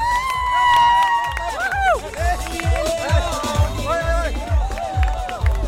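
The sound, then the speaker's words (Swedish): Spectators on Avenyn cheer and whoop when urged on, with rising and falling shouted voices, over a steady, regular low thumping beat that continues throughout. “Kom igen publiken då!”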